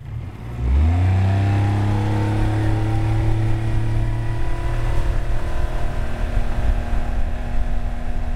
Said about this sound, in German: Mit Vollgas natürlich, denn so ein Motorboot ist nicht nur Mittel zum Zweck, sondern macht auch Spaß zum Fahren.